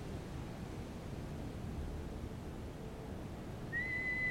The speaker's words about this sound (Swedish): Visslingar från alla olika håll om vartannat i en kakafoni.